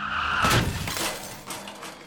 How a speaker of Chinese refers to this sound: 刹那间，赵阳感觉到遭受了猛烈的撞击，汽车发生剧烈的颠簸之后，继续向前滑行了好几米，才缓缓地停下来。